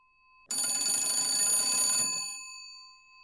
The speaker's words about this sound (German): New York, irgendwann um die Wende vom 19. zum 20. Jahrhundert. Im Hotel Waldorf Astoria klingelt das Telefon.